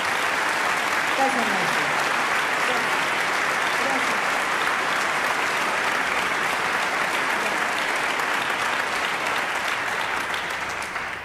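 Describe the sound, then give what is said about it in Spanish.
An audience applauds two musicians steadily, a dense wash of clapping that stays loud and even for the whole stretch, with a brief voice faintly audible underneath near the start. “Gran aplauso para todos.”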